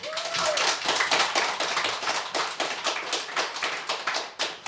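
An audience claps steadily for several seconds for a musician with a guitar, a dense patter of many hands at fairly even loudness, with a brief whistle-like tone near the start.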